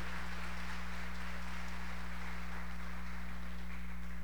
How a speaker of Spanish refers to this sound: Dele el aplauso al Señor esta tarde.